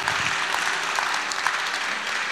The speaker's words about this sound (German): Hey, gib der Person noch einen riesen, fetten Applaus.